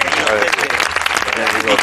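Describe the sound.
A crowd bursts into steady, loud applause that fills the whole short stretch, dense clapping with a few voices mixed in underneath.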